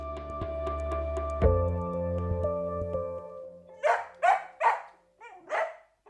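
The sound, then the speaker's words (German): A sustained musical chord fades out, then a dog barks four times, loud, in a quick irregular series with short pauses between barks. “Zugegeben, das kann auf Dauer ganz schön nervig sein. Aber diese Vierbeiner können ja auch anders”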